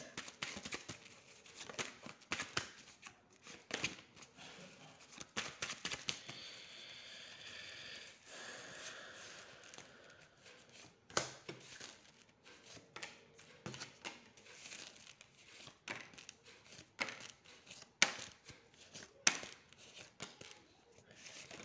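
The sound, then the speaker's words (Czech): Tarot cards being shuffled for a tarot reading, with a steady run of quiet papery riffles, flicks and soft snaps in irregular bursts, some sharper slaps standing out near the end. “Já už se dívám na vaše fotky, míchám u toho karty a podíváme se teda spolu, co nám Tarot řekne o tomto partnerském vztahu.”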